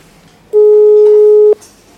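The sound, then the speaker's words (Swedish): A single steady telephone ringing tone, the kind heard while placing a call, sounds for about a second, loud and clear with no talking over it. “Nu ringer vi.”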